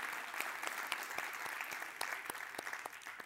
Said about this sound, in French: Grosse main d'applaudissements.